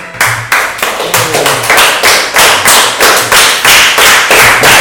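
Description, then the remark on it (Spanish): An audience claps in rhythmic unison to vote for the Calipo ice lolly in a quick audience poll, steady loud claps at a quick even pace, about three per second, with no voices over it. “Eh, ¿Cuántos sois de un aplauso para, el Calipo, por favor?”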